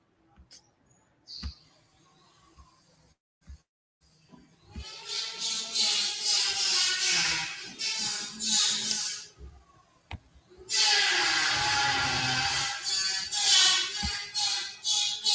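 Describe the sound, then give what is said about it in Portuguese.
Renovation noise from workers replacing a built-in wardrobe in a home: a few sharp knocks, then two long stretches of loud, high, squealing scraping or drilling, broken by a brief pause. “Bem, a turma tá trocando o armário embutido aqui em casa, tá um barulho aqui, né?”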